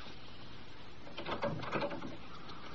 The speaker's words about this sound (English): Why'd you close the door?